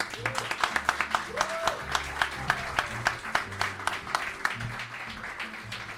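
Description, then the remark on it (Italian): A live audience under Ponte Cavour on the Tevere claps steadily, with dense overlapping handclaps forming a continuous wash of applause at moderate loudness, while some voices murmur beneath it. “siamo a Lian sotto Ponte Cavour, siamo sul Tevere, c'è un bellissimo pubblico qui che è venuto ad assistere a questa puntata, quindi se volete fate un applauso.”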